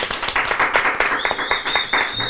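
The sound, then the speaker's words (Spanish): An audience breaks into steady, dense applause for a guest at a panel discussion, many hands clapping at once. Partway through, a thin, high whistling tone rises above the clapping and holds. “Un aplauso, por favor.”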